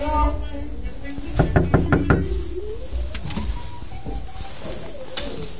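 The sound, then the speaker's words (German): A quick series of about five or six firm knocks on an inner door, with a brief murmur of voices and background noise around them. “Ich glaube, du musst eben klopfen.”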